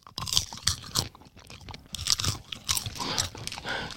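Strawberry popcorn being chewed with loud, irregular crackling crunches, sharp bright bursts repeating every half second or so with a constant rustly crackle between bites, no talking.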